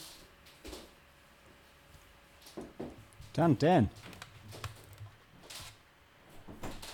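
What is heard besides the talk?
window being closed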